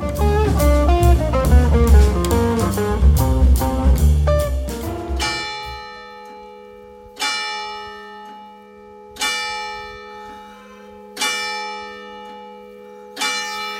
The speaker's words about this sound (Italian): Ecco, suonano le campane di mezzogiorno qui fuori dalla chiesa di Sant'Anna